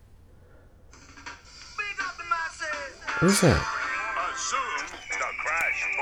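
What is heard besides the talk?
phone alert sound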